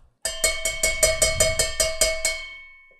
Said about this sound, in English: That is me hitting a colander with a spoon.